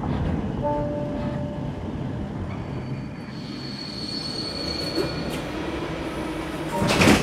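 A train rumbles steadily, with thin metallic wheel squeals rising over the noise as it gradually slows to a stop, ending in a brief louder burst of hiss or clatter.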